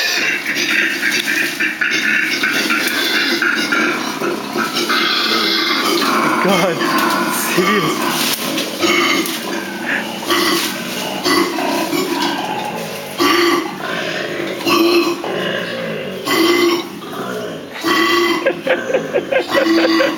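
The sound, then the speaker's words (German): A koala's deep, rasping bellowing calls, loud, in a continuous string of grunting, belch-like snorts and drawn-out groans that rise and fall in rough pulses. “Aber sie machen auch noch schreckliche Geräusche.”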